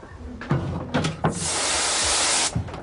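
Water jets at a sieving station spray in a steady, loud hiss lasting about a second, washing fine particles out of excavated sediment, preceded by several sharp knocks and clunks and followed by one more thud.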